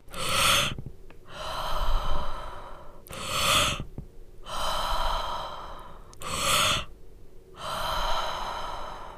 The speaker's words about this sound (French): plutôt un souffle puissant mais de la même longueur et durée que l'inspiration. Et le plus important, pensez que vous expirez votre stress. Donc c'est une respiration un peu bruyante, hein, c'est du genre, euh, pour vous montrer.